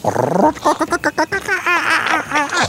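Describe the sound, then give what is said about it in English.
A male bowerbird, during its courtship display, mimics a kookaburra's laughing call: a loud run of rapid chattering, hooting notes that rise and fall in quick, uneven bursts for a few seconds. “And they do they do imitations of kookaburra, you know.”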